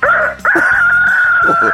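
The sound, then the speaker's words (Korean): A person imitates a rooster crowing for an impression contest on Park Myung-soo's Radio Show: a short, loud opening note, then a long, strained high call, with no other voices. “닭소리 들어보겠습니다.”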